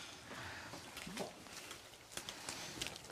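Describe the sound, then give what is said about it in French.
Crisp crunching of about twenty small goats chewing the needles of a fir tree: a steady stream of small irregular crackles and snaps, fairly quiet, with no voices. “On entend que ça croustille.”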